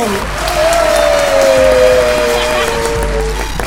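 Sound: applause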